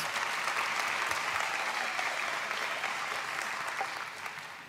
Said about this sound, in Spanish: Demos un fuerte aplauso al Señor. Gloria a Dios.